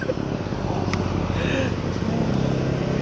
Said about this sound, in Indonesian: Ih, jamet lewat. Wah eh, kalau ada knalpot nyaring jamet lewat ya berarti.